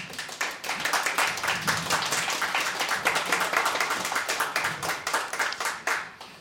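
applause

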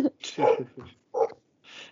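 dog barking

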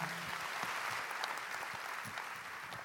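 audience applauding

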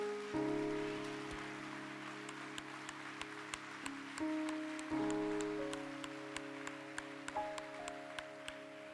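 audience applauding

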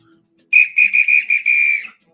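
whistle blown

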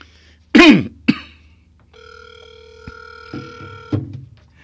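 telephone line ringing

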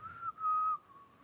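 person whistling

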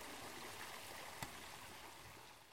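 water flowing

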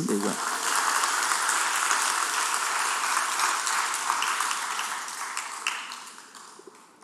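audience applauding

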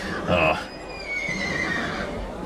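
horse neighing

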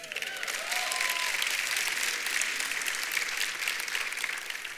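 audience clapping

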